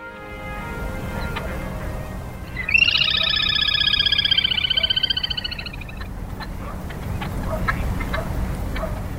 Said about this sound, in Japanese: 吉原に囲まれた一角から賑やかな鳥の声が聞こえてきましたカイツブリの声です